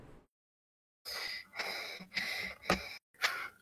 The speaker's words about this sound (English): As I start panting.